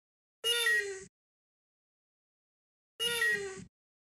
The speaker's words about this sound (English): Is that a droid? Yes, which one? droid makes sounds like this? They all make sounds like that. that is that one was that sound was labeled oh. sad R2D2. Uh. That's R2D2 being sad.